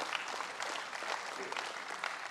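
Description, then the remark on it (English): Steady applause from a group, many hands clapping in a dense, continuous patter of sharp claps that stays even in loudness throughout. “We can clap for family.”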